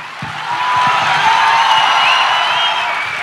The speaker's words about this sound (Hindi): जोरदार तालियों के साथ खुशामदीद कहते हुए मैं दावत देना चाहूंगी नवाजुद्दीन सिद्दीकी नंदिता दास साहिबा और आरजे साइमा को